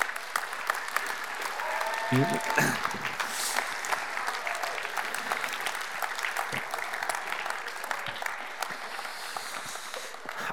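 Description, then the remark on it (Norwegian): A crowd applauds steadily to welcome a youth leader from Join coming up to share, dense clapping from many hands at an even level for the full stretch, with a brief spoken word over it near the start. “og når han først tar turen fram her for å dele, så må dere gi han litt drahjelp med en skikkelig applaus.”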